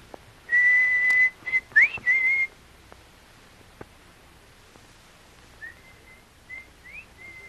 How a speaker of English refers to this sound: Kolu, try your signal whistle. But, Missy... Please, Kolu, please whistle.